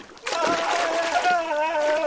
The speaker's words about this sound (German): hörte, wie der König gewaltig im Wasser planschte.